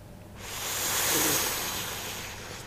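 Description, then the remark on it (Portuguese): A voice imitates the sound of the sea with a long, breathy hiss that swells to a peak and slowly recedes, heard alone like a single wave washing in. “Fala que eu enquanto eu faço o som do mar.”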